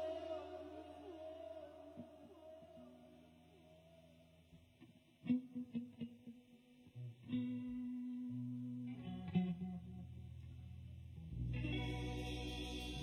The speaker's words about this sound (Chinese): 这是我们昨天刚排的新歌，哥们，这混响太给力了。